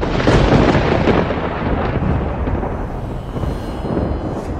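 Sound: loud thunder crack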